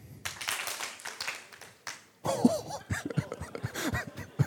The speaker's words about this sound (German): Okay, klatsche einmal, wenn du denkst, die erste Geschichte war richtig.